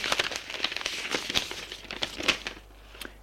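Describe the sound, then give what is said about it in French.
A paper letter is handed over, unfolded and read, giving a run of irregular, crisp crinkling rustles in short bursts that taper off toward the end, with no voices. “Elle lui tend la lettre.”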